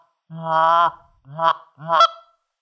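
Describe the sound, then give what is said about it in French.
Three buzzy, nasal goose honks made by humming through a goose call like a kazoo, with no air blown through it: a long held note, then two shorter rising blasts, fairly loud with no talking. “Puis là, tu vas te servir de ton appôt comme un gazou. Écoute bien, il n'y a pas d'air là-dedans.”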